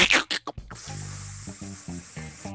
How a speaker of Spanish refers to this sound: Yo lo encontré, maestro, volver a experimentar el sonido del Dolby, de la cinta pasando. Fue nostalgia pura.